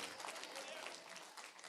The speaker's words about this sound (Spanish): Dale fuerte el aplauso a Cristo en esta mañana. Y a su nombre.